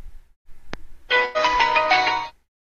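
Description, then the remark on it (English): A short click, then a bright electronic startup chime from a Bluetooth speaker powering on, a rich melodic tone lasting just over a second, loud, then silence. “And just to show you, I'm going to turn mine on.”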